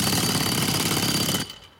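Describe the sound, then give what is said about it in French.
A jackhammer breaking concrete pounds away in a loud, rapid, continuous burst of hammering for over a second, then cuts off abruptly, leaving a brief fading tail. “Il n'y a rien qui résiste à un marteau-piqueur.”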